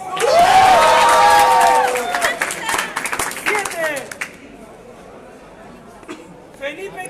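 At a regional tournament, as the top-cut players are announced, a crowd bursts into loud clapping and cheering, with high whoops and shouts over rapid applause, then the noise drops away to quieter chatter and scattered claps.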